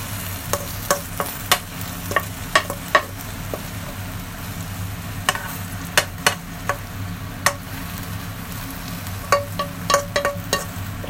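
food sizzling

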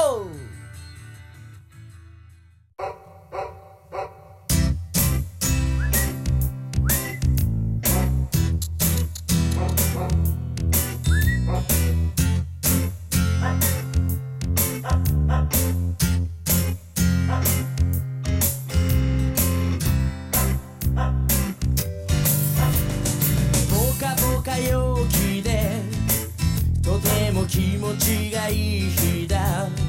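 song intro played

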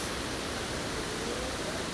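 rushing river water

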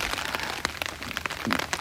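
rain falling outdoors

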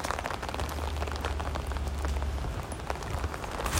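rain falling outside

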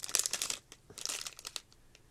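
rustling

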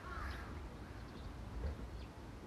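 crow cawing

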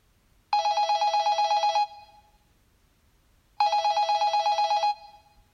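landline telephone bell ringing

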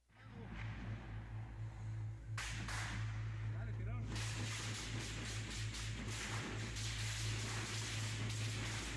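gunfire

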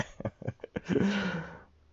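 sneeze

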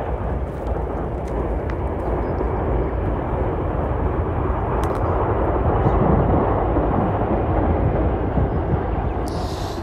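train passing by

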